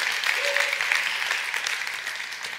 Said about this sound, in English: We can clap for that. Was someone clapping for that?